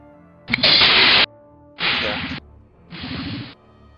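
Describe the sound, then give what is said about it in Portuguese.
Three whip sound effects in a row, each a loud, sharp swish-and-crack lasting under a second, with the later ones slightly quieter, as a whip is drawn and held in hand. No one speaks. “Eu saco meu chicote. Fico com o chicote na mão, beleza?”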